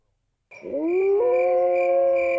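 A wolf lets out a single long howl that swoops upward in pitch and then holds a steady, sustained note, loud, with no voices around it.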